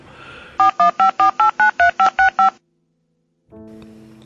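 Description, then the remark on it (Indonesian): A rapid run of ten crisp, evenly spaced telephone keypad beeps, each a short two-tone chirp, followed by a second of silence and then a steady ringing tone. “telepon engkom kali ya bisa mem, ini mengurangi beban hatiku. Telepon dulu ah.”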